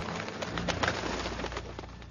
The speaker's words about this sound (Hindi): उतनी देर में जंगल से आवाजें आने लगी तेज तेज हंसने की जिसे सुन जंगल में रहती सारी चिड़िया उड़ गई